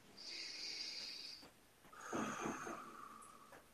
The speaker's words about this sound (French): Alors, une respiration.